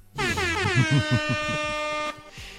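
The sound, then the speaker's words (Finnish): A loud, blaring air horn sounds in one sustained blast lasting about two seconds, with a rich buzzy harmonic tone and a pulsing stutter at the start, then cuts off abruptly. “Siis toi on niin klisee toi mm. torvi”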